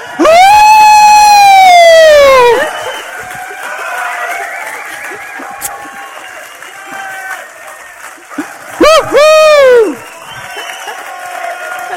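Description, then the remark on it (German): An audience at a sermon breaks into sustained applause welcoming the speaker's wife onto the stage, with a loud rising-and-falling whoop at the start and another cheer partway through over the steady clapping. “Und darum würde es mich so richtig freuen, wenn du würdest mithelfen meine bezaubernde Frau mit einem riesen Applaus willkommen zu heißen.”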